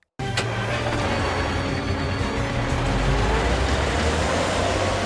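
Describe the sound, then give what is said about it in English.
A steady, loud engine rumble of a truck driving through the streets, with low droning tones and continuous road noise that starts abruptly and holds constant throughout. “Carl drives through the streets.”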